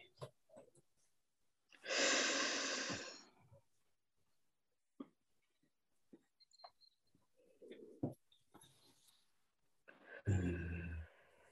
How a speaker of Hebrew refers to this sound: נפלא. אז קחי נשימה עמוקה ובואי תחזרי אליי.